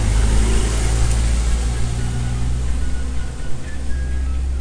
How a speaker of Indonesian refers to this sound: waduh truk pitik yo banter suaranya